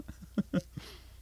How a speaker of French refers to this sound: Je me prends de gorgée, justement, un instant.